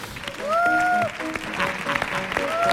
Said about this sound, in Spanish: Fuerte el aplauso